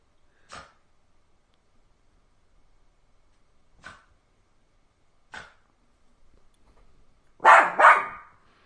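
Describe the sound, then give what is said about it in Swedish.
A bichon frise named Felix, weighing about 3.5 kilos, barks alone at Leatherface on a TV: three sharp single barks spaced a couple of seconds apart, then a louder quick double bark at the end. “Han är en bichon frisé som väger ungefär 3,5 kilo.”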